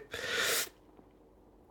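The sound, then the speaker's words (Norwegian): A single short, breathy yawn, a loud rush of air lasting about half a second, followed by quiet room tone. “En gjesp.”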